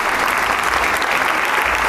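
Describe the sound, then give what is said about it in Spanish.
Sustained, dense applause from a concert audience as the maestro comes out again to greet the audience, steady and loud throughout with many hands clapping at once, no distinct individual claps standing out. “Sale el maestro Itán una vez más y saludar al público, agradecerle a todos con una sonrisa plena y el aplauso pleno también para todos.”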